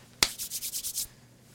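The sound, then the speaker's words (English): A paper about Fauci being handled while searched for: a sharp crackle followed by a quick run of six or seven bright, hissy rustling strokes in an even rhythm, lasting about a second, with no talking. “Where is my Fauci ouchie paper? Ah, yeah, here it is.”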